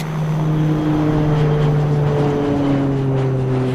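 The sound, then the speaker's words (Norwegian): A steady, loud engine drone with a strong low hum and rising tonal whine as a Widerøe airliner on route 710 takes off from Namsos Airport at 20:07, heading north, with no voices. “Klokka 20.07 tar Widerøes rute 710 omsider av fra Namsos lufthavn og setter kursen nordover.”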